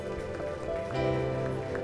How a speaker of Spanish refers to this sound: Damos un fuerte aplauso, Señor.